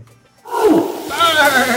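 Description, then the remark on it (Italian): An orangutan call bursts in after a brief quiet moment, loud, starting with a rough, growling roar and rising into higher, strained hooting cries. “notevole anche la sua scimmia, un bello orangutang che apprezza e scalpita.”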